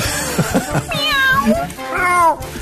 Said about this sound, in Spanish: Miau, miau, miau, miau.